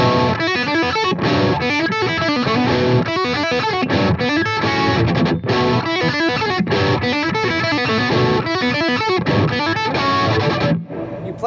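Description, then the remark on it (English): A loud, gritty electric guitar played through distortion pedals on a heavy classic rock, hard rock setting plays a dense stream of fast notes and chords, sustained and unbroken for most of the passage before cutting off briefly near the end. “the two settings that you kind of roll with with the, the heavy classic rock, hard rock, and oh, the clean yeah. tones”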